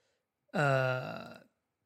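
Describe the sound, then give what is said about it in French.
A single loud, throaty burp lasting about a second, with a low voiced rumble that turns rough and crackly before it cuts off. No talking. “excusez-moi, je rote”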